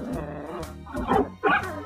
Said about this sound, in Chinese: 渣渣和大狗正你来我往叫个不停，一边叫一边摇尾巴。